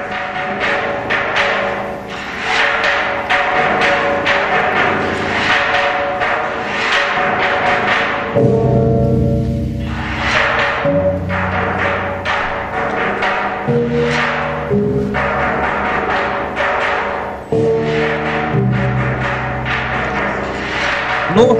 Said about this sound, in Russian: примерно где-то 500 лет до нашей эры появились вот такие барабаны, и эти барабаны также были в самом первом э, государстве Китая, государство Шан назывались барабаны из бронзы. Давайте послушаем, как они звучат. Так, фрог драм, слушаем.